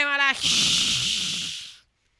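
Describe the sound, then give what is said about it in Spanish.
A brief voiced tone, then a person produces a steady breathy hiss for about a second and a half, imitating the sound of fire but coming out more like falling rain. “Siempre parece que está lloviendo cuando yo lo hago. Eh, yo voy a aprender a hacer Ruido de Fuego.”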